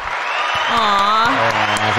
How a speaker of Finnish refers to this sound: Me no, on täällä iso yleisö, kun on noin isot aplodit.